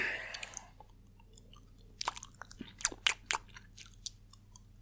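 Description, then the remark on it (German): Wet chewing and lip-smacking noises, a series of short irregular clicks and smacks, fairly quiet, over a low steady hum with no talking. “Das Schmatzen muss weg.”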